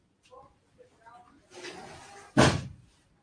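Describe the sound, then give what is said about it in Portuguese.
A door swings and shuts with a single loud slam that rings out briefly, preceded by some faint shuffling and a soft murmur of voice. “Esqueci de fechar a porta.”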